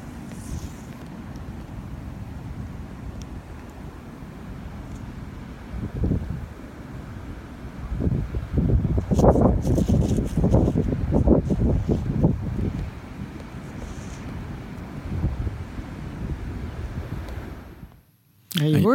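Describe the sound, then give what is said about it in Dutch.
Marram grass rustles and hisses in gusting wind, the steady rush swelling into a stronger, choppier gust midway before easing off and cutting out near the end. “we kunnen heel nog even naar het helmgas luisteren.”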